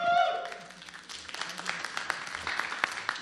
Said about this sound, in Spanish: Fuerte el aplauso.